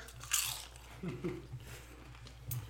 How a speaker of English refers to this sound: Sorry. I couldn't hear, bro. I was eating some chips and shit.